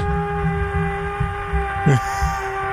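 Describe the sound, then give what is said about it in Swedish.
A neighbour's power drill whines steadily at eight in the evening, muffled through a wall the microphone is aimed at, with a low rhythmic thumping underneath and a brief sharper burst near the end. “Är det någon som borrar?”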